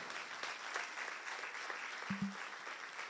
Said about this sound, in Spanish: Si tú lo crees, dale un aplauso fuerte a Jesucristo. Vamos, un aplauso fuerte de fe a Jesucristo.